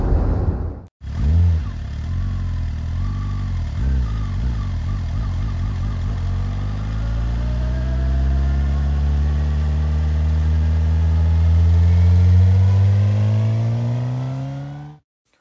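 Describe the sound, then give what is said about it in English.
A car engine hums and wavers through a brief gap while the car is driven to work. It then climbs in a long, steady rise in pitch as the vehicle accelerates. The engine stays loud and constant, with no voices. “That said, you got a guy sitting in a car today on his way to work answering call ins.”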